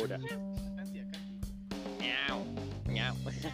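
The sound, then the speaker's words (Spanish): A person's voice mimics a cat, the cat role they voice in Fuli Coolie (FLCL), giving a few high, drawn-out meows, with steady musical tones humming underneath. “Yo de Fully, yo de Fuli Coolie solamente hago al gato y al robot.”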